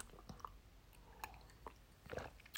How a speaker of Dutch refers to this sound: Ik neem even een slokje water.